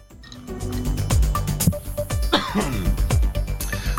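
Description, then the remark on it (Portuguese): A person coughs and clears their throat repeatedly, several rough bursts with short pauses between them, no talking. “E eu tô com tosse, peraí.”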